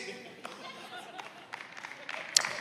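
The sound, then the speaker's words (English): An audience claps in a loose, scattered burst of overlapping hand claps, steady and moderately loud for a couple of seconds, with a murmur of voices underneath. “I mean, I, I appreciate the clap.”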